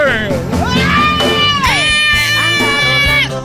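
A crowd cheers loudly in an ovation for a boxer, high-pitched shouts and yells rising over a steady roar that carries on without a break.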